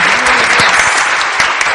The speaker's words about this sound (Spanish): Vamos a darle un fuerte aplauso, por favor